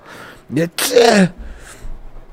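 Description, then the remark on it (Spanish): A single sneeze: a brief voiced intake followed by a sharp, loud burst that trails off, leaving faint low rumble afterward. “Voy a hacer una pausa porque parece, todo parece indicar que voy a estornudar.”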